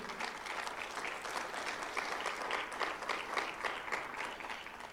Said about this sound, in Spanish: ¿Puede darle un aplauso fuerte al Señor?